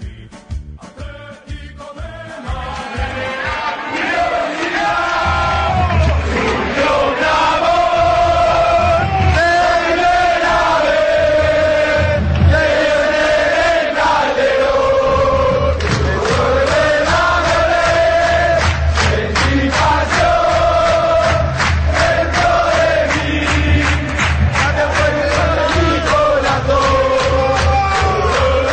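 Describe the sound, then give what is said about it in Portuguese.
A large crowd of Atlético de Madrid football fans chants in unison, a loud, sustained sung refrain rising and falling in steady melodic phrases, with rhythmic accents and a constant roar of voices underneath. “O Som das Torcidas #107 Atlético de Madrid”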